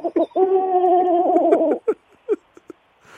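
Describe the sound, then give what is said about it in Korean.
A child's voice imitates a pigeon's cooing: a quick opening note, then a long, steady, throaty warble over a second long, trailing into a few short clipped coos, clear. “비둘기 소리 어디서 배운 거예요?”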